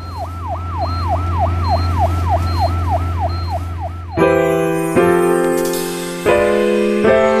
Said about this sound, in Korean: 사이렌 소리가 귓가에 먹먹하게 들려오는데 온몸이 욱신거리고 왼쪽 뺨이 발발 떨렸다. 특히 왼쪽 다리가 너무 아팠다. 반복되는 사이렌 소리에 최면이라도 걸린 듯 머리가 어지럽고 자꾸 눈이 감겼다.